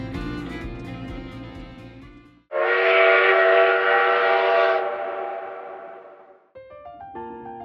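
A train pulls away with a long, loud, high whistle blast over rumbling rail noise, then the whistle cuts off and the rolling sound carries on with fainter tonal hoots.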